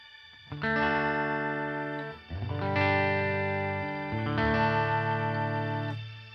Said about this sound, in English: So it sounds kind of like there's just a, uh, a key player kind of following what you're doing. Yeah, it's interesting. I, the Seraphim is like a pretty popular pedal for guys who want those like octave, uh, the octave shimmer effect.